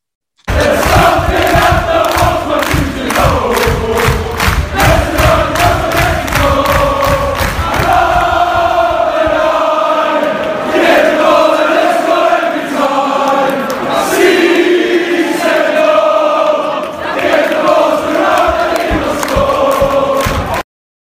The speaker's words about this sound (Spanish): ya que Raúl Jiménez es de hecho ya un goleador histórico en el club, pues se rompió el récord de más goles en una temporada, le tienen mucho aprecio, mucho cariño y pues Vamos con ese cántico que yo creo que top 3 también.